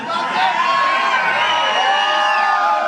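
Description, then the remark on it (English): A dense crowd cheers and whoops continuously, many overlapping voices rising and falling in loud, sustained excitement with high-pitched shouts cutting through the roar. “This is a crowded place.”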